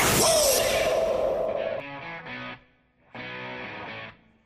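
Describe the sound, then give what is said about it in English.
A short show jingle opens with a loud, noisy whoosh-like crash, then shifts into bright, punchy musical stabs, pauses briefly, and ends with one more sustained musical phrase. No one speaks. “we're back to the Bernie and Sid music”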